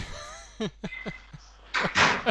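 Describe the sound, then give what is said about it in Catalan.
A door closes: a few short knocks and clatters, then a louder, rougher burst of noise as it swings shut, with no talking. “S'ha tancat una porta.”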